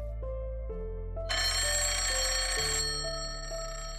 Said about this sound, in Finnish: Maaliskuun 12. päivänä John Condonin puhelimen pirinä lävisti hiljaisen asunnon Bronxissa.